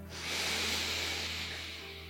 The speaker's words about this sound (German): Freunde, dann lasst uns doch mal mit einem tiefen, tiefen Atemzug gemeinsam in diesen Podcast starten. Okay. Atmet einmal tief ein durch die Nase